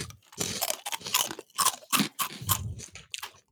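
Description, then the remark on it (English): Loud crunching of twisted, crinkle-cut honey snack crackers: a steady run of crisp, brittle chewing bursts in quick irregular rhythm, with no talking. “Yeah, it's crunchy roasty on the side of burnt, maybe.”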